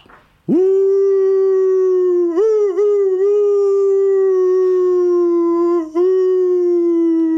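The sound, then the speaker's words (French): A single wolf lets out one long, loud, sustained howl that holds a steady pitch with a few small wavers, clear with no talking. “là, vous allez voir que les loups hurlent à l'amour, ils hurlent pas à la mort, ils hurlent à la vie, à l'amour.”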